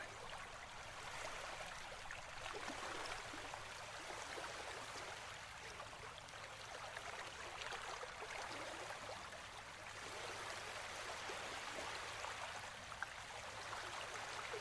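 Steady rushing river water flows continuously, a broad, even wash of gurgling and splashing that stays at a constant moderate level throughout, with no voices present.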